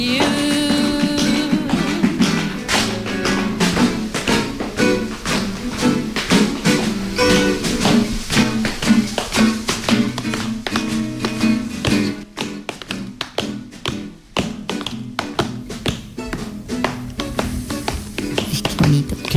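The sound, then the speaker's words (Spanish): Tap dancing shoes clatter in quick, crisp rhythmic bursts of sharp metallic taps, loud and busy throughout, with a brief sparse break partway through before the rapid footwork resumes. “Oye, siempre me habría gustado aprender a bailar claqué.”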